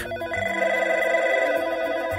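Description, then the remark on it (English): A telephone bell at the company P&G rings steadily and loudly, its bright metallic trill sustained across the whole moment with no voices present. “P&G's phones rang off the hook.”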